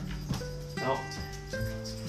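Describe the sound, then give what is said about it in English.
A dog barks three times at a steady pace, each bark loud and tonal, with a faint background hum running between them. “dogs barking again as usual.”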